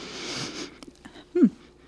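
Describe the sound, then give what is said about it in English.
A single breathy sniff as someone inhales deeply from a drink can, followed by a few small clicks and a short, low vocal murmur. “take a big sniff”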